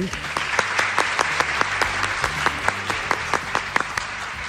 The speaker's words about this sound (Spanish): Nos damos un aplauso por los éxitos conseguidos, por los que van a conseguir y bueno, y por esta, esta reunión tan, tan chula que hemos tenido. Venga, nos aplaudimos, ¿ok?